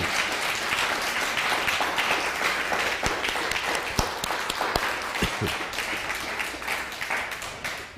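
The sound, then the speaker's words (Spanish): A crowd applauds steadily for several seconds, a dense wash of many hands clapping at a fairly loud, even level, with a few sharper individual claps standing out near the middle, a strong round of applause for all the nations at a live Shabbat gathering. “Toda Rabá, a todas las naciones, un fuerte aplauso.”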